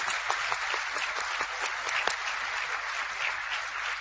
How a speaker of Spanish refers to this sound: Entendieron el tercer fundamento de este negocio, que es llevar personas a los eventos. Y este grupo se sacó 10 en esa materia. Vamos a otro aplauso para eso.